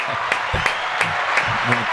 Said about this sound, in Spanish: Aplausos, familia.